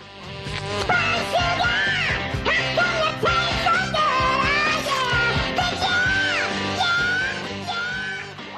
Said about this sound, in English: If so, you probably wouldn't be very impressed with this Pepsi commercial, where the song is sung by a squeaky soda loving fly.